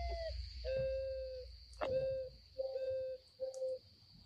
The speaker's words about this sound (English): So this is what the mourning dove sounds like.